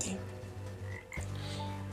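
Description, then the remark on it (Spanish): A dense chorus of frogs croaking continuously, steady low pulsing calls layered together, fairly loud, with a brief shift in the texture midway before the chorus resumes. “en tu dormitorio, sobre tu cama, en casa de tus sirvientes en todo tu pueblo, en tus hornos, en tus recipientes para amasar, sobre ti, sobre tu pueblo y sobre tus sirvientes pulularán las ranas.”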